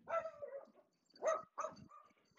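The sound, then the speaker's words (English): Small dachshunds, pets named Pistol and Tucker, bark in a series of sharp, high yaps, a long one followed by quick bursts a moment apart, fairly loud with no talking. “Sorry, it was my wiener dogs, Pistol and Tucker.”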